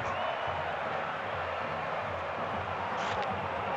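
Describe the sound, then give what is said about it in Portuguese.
A football stadium crowd roars and cheers with six minutes left in the match, in a dense, continuous wash of noise that holds steady and loud throughout, with no single voice standing out. “E a torcida se assanha. A torcida vai pra cima porque só faltam seis minutos.”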